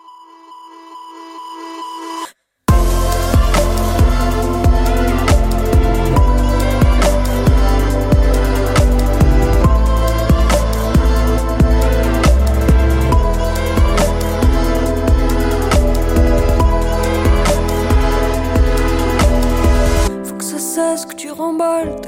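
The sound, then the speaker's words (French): A French pop song's intro: a short tonal opening, a brief pause, then a loud, steady beat with heavy bass and layered synths driving forward before thinning out near the end. No vocals yet. “et on va finir cette interview avec une artiste dont tu t'occupes en ce moment,”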